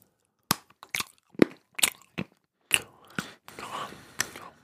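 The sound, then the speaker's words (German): Crisp crunching and chewing of cocoa-rich, not bitter chocolate, a series of sharp bites followed by softer, wetter mastication, with no talking. “Ich kenne jemanden, der kaut immer so.”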